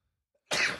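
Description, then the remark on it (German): A single sharp sneeze bursts out of near silence, loud, a sudden noisy blast with no talking around it. “Chef Gesundheit. Entschuldige.”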